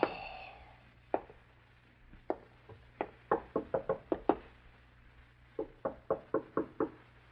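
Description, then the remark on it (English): Knocking on an apartment front door: a few spaced single raps, then two insistent bursts of rapid knocks, sharp against a quiet background with a low hum. “You stare at the front door of the apartment in startled silence. Your first impulse is to answer the door”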